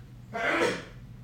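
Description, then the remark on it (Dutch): A single sharp sneeze bursts out, a quick noisy blast that fades within half a second, with only a low background hum around it and no talking. “Oh, gezondheid.”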